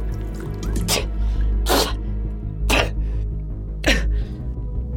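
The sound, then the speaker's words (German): Inside a tent, someone spits out a mouthful of bottled water in four sharp, splashy bursts spaced about a second apart, each a brief hissing sputter over a steady low hum, with no talking. “Aber er spuckt es gleich wieder aus.”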